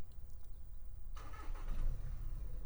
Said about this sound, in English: there's an engine going.